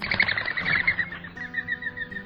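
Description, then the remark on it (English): A rapid series of high, thin whistling pulses from a mourning dove's wings on takeoff, a fluttering twitter that starts loud and fades slightly, with no voices. “Males have favorite cooing perches that they defend from other males, but you can also identify it by the distinctive whinnying sound its wings make on takeoff.”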